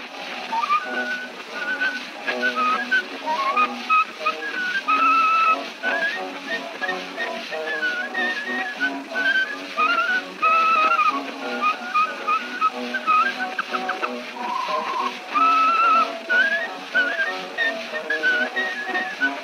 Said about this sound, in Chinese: 这里吹口哨的是黑人艺人